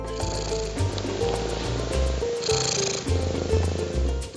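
Merlin, a male pet cat, purrs steadily while eating, a continuous low rumble running the whole time, with quick regular clicking and smacking noises of eating layered on top.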